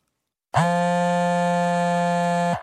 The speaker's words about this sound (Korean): 바로 그때 윤식의 핸드폰이 심하게 진동했다.